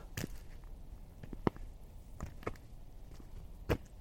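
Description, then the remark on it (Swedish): Footsteps of a person hiking outdoors crunch along at an unhurried, slightly uneven pace, each step a short, soft scuff over a quiet, rumbling background with no talking. “Det enda som hörs är mina steg.”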